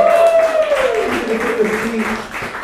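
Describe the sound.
A comedy show audience applauds steadily for a few seconds as a performer is introduced, a dense crackle of clapping, while a single voice lets out a long cheer that slides downward in pitch.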